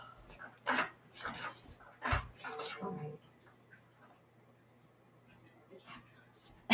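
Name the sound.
dog making noises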